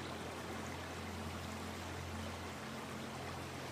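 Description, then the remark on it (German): A clear river flowing slowly downstream gives a soft, steady rushing wash that stays even throughout, with a faint low hum underneath and no voices. “Das Wasser fließt langsam stromabwärts und mit ihm alles, was sich darin befindet.”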